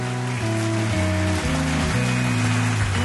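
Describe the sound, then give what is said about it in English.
Steady, dense clapping like a crowd's applause, loud and continuous for about three seconds, with a tonal musical chord sequence shifting underneath. No one speaks. “Stop the applause.”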